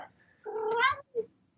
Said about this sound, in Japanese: ちょっと猫がうるさいな。